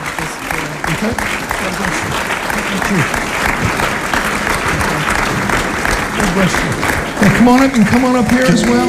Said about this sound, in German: Wir geben ihnen Applaus. Kommt, Kirche, wir geben ihnen Applaus.